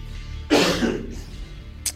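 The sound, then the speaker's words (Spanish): A person coughs: one loud, harsh cough that trails off, followed a moment later by a second, shorter and quieter cough. “Bueno, mientras echamos unas toses, se nos seca la boca”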